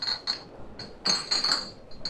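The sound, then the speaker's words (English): Glass bottles clink against each other inside bags being carried, a quick irregular series of bright, ringing knocks, some overlapping, moderately loud with no voices. “Careful with those bags, old man. If those bottles get smashed, there'll be no chance of sneaking more in past Aunt Cressy's lidless gaze.”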